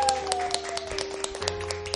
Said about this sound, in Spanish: Un aplauso nuevamente a nuestros invitados